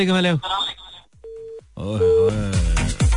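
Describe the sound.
A phone call drops on a radio line: a single short, steady electronic tone cuts in between bursts of talk, and a voice resumes right after.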